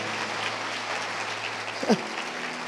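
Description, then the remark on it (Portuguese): An audience claps steadily for two participants in a dense, crackling wash of applause that holds an even level throughout, with a brief vocal yelp breaking through near the end. “Uma salva de palmas para os dois.”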